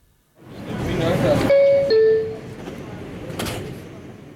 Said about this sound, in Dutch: Metrogeluiden uit New York, twee jaar geleden opgenomen bij een bezoek aan die stad. Elke keer als ik dat klingeltje via de intercom van de metro hoorde, veerde ik op. Dit klingeltje.